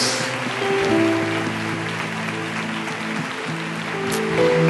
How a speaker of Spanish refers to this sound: Da un aplauso fuerte, fuerte a nuestro Dios.